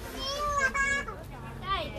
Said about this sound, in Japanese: すごい子供が子供をなんか振り回して遊んでますけど危なかったまあそんなところを今日は歩いております今日もバザールにねなんとなく雑踏の中にちょっと来たくてここまでゆっくり今歩いてまあ来ました